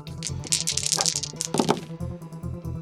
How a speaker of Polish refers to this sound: Czyli ile teraz rzuca kości? Czterema. Ja rzucam dziewięcioma.